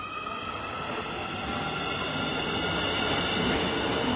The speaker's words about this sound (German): Er passt auf, dass seine Truppe den Zeitplan einhält und nichts passiert, denn am Nachbargleis fahren während der Bauarbeiten die Züge weiter.